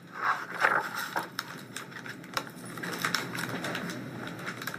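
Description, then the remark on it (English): A bookmark is slid down a book page to guide the reader's eyes to the line being read, in soft, papery scraping strokes, faint and irregular, with a few light ticks between them and no voices. “she's reading a book and you can hear her move the bookmark down the page to guide her eyes to the line she's reading.”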